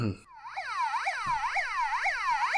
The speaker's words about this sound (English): That's what the fucking cop sirens drove past a few times um, Saturday night. I wonder if they were heading out towards that casino.